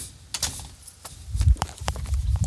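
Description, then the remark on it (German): A car key is handled, giving a few sharp metallic clinks and jingles at irregular moments over a soft, low rumble of movement. No one speaks. “Also ich habe hier einen Schlüssel. Das ist aber definitiv nicht der richtige.”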